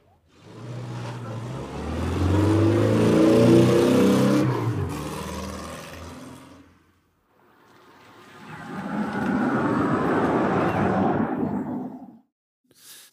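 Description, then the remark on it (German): A combustion-engine car drives past, its engine rumble swelling loudly then fading, followed after a brief pause by an electric car passing with a smoother tire-noise whoosh. No one speaks. “Es fährt also erstmal ein Verbrennerauto an uns vorbei und äh, die, das zweite Geräusch, das ihr hört, ist ein E-Auto, das vorbeifährt.”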